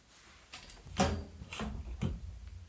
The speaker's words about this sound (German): Das sind doch die Umrisse einer Tür. Es ist eine. Es ist eine Tür. Ich bekomme die schon irgendwie auf.